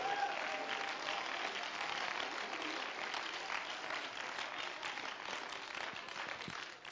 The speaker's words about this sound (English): Oh, come on, let's clap our hands to it.